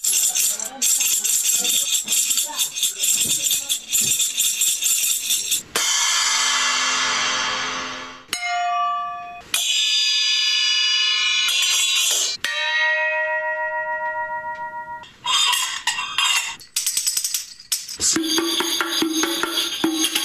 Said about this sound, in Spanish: Comenzamos con, eh, en la audición vamos a escuchar cistros, vamos a escuchar tambores, címbalos